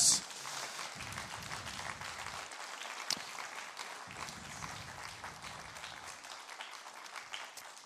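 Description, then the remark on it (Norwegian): Steady applause from a crowd at a church service, thanking the singing and music, a dense crackle of many hands clapping at an even level throughout, with no voices rising above it. “Jeg ser at noen holder igjen applausen, så vi slipper den løs.”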